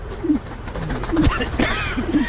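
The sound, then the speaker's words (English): Several pigeons coo in low, throaty bursts, a soft rolling rhythm repeating, with brief scuffling and a sharp flutter-like noise mixed in against steady outdoor background noise. “But we give the pigeon grudging respect for being so adaptive to its urban surroundings.”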